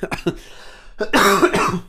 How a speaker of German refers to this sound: Entschuldigung. Und ja, huste dich aus.